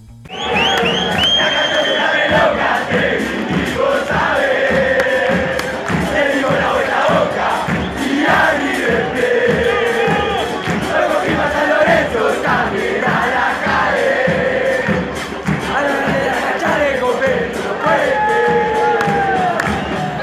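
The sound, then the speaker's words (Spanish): A large crowd of football fans in the Granate stand sings a rhythmic chant together, their version of a popular song, loud and continuous, with a steady pounding beat underneath the massed voices. The chant was first sung in 2017 during the Argentine First Division championship. “Pero también llegó, como decíamos, a la tribuna Granate. Así suena esta versión.”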